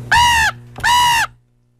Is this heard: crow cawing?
yes